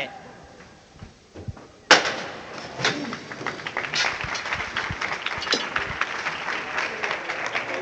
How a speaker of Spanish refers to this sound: Escuchabais también el sonido metálico de quitar el pasador de los zancos. Ahora mismo ya los zancos se han reducido a la mitad.